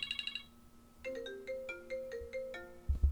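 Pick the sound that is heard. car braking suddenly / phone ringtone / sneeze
phone ringtone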